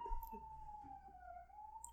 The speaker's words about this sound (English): damn ambulance now, the drag race is getting out of control.